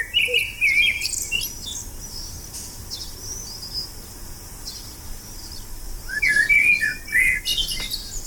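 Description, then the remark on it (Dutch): A blackbird sings two clear, fluting phrases, one at the start and one near the end, with a pigeon calling through it, over a steady background of chirring insects outdoors. No one speaks. “Er zit ook een duif doorheen te tetteren trouwens.”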